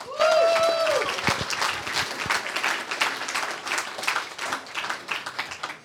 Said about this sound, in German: Herzlich willkommen hier im VIP-Raum Dänemark und einen großen Applaus bitte für unseren Kapitän, Domagoj Duvniak.